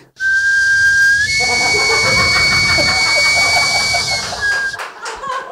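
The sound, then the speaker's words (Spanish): Someone imitates a sweet potato vendor's steam whistle: one long, loud, steady shrill tone over breathy hissing, held about four seconds before trailing off, with no talking. “Y que pasó un señor vendiendo camotes y.”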